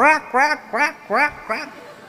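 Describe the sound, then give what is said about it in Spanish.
Five loud, nasal duck quacks ring out in a steady rhythm, each a short harsh burst with a brief pause between, with no talking. “Esos son aves.”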